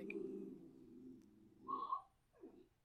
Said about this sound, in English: Again, I'm sorry if you can hear chicken. She is very vocal. She's She's an attention whore. She is eyeing me down right now.